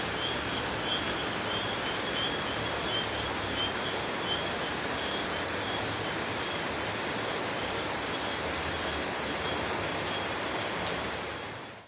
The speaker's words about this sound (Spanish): Hola, mi nombre es …, eh, pertenece al grupo de periodismo de Jerico Antioquia y les traigo ese hermoso sonido de la lluvia en la noche.